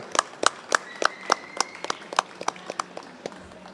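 Audience applause at an authors' book fair, given for the fair's Palme d'Or award, heard as a steady run of distinct, sharp claps at a quick, fairly even rhythm, moderately loud and slowly thinning out toward the end, with no talking.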